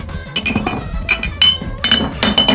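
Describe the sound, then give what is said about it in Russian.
Cups and bottles clink and rattle against one another as they are shoved aside to reach a phone, a busy run of several glassy knocks and ringing chimes over about two and a half seconds. “А сейчас еще нужно прорваться сквозь эти... Какие-то тут... Какие-то стоят чашки, бутылки.”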